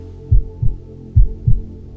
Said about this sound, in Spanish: Estás ahí contigo con los latidos de tu corazón. Escúchalos. Así suena.